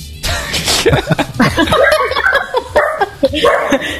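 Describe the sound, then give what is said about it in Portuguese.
Dogs bark in short excited bursts, tangled with people laughing and chattering over them throughout. “Até os cachorros ficaram animados com essa.”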